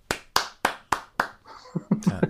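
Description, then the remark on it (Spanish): Five sharp, evenly spaced hand claps ring out, followed by a brief burst of quick, overlapping claps and a short vocal sound at the end. “Te digo, eh, me, aplauso.”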